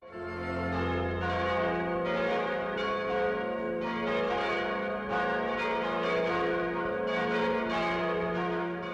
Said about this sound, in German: Das sind die Glocken von der Kirche in St. Engelmar. Klangvoll und kräftig tönen sie vom wuchtigen Turm über die Täler und Höhen des vorderen bayerischen Waldes.